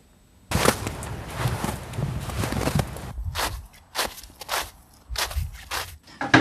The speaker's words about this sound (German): Warum knirscht der Schnee? Schnee besteht normalerweise aus Eiskristallen. Ähm, wenn der dann zu Boden fällt, bildet er jedoch so eine schwammartige Struktur, wie bei SpongeBob.